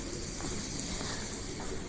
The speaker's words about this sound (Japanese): 今朝も結構鳥が鳴いてますあのピーってピーって鳴く鳥は何なんですかね何の鳥だろう全然詳しくないんですよ